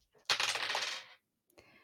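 Dice clatter and rattle across a hard tabletop for about a second, then settle, followed by a shorter, quieter clack moments later, as a player rolls for a self-presentation skill. Fairly crisp, with no voices.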